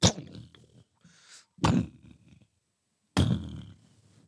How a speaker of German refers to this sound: beginnt ein heftiger, eisig kalter Wind durch die Halle zu brüllen und löscht alle Flammen. Ihr hört das Quietschen von uralten Scharnieren und die dumpfen Schläge schwerer Türen, die in der Entfernung zugeschlagen werden. Eine nach der anderen.